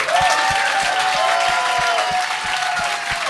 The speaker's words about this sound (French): Arrêtez d'applaudir, vous le connaissez pas.